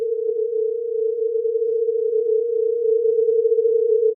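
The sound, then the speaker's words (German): A steady synthesized pure tone at a mid-low pitch holds for about four seconds, with a slight wavering oscillation layered on it giving a subtle unsteady shimmer; no voices, loud and continuous. “Wenn man jetzt die Komplexität erhöht und diese Schwingung auch noch schwanken lässt und wieder zum reinen Ton gibt, klingt es so.”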